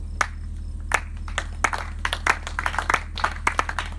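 An audience claps in scattered, uneven bursts, sharp hand claps overlapping and thickening toward the middle, then thinning out, over a steady low hum with no talking.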